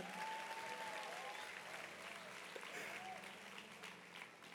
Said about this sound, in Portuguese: Vou dar uma salva de palmas para a criança.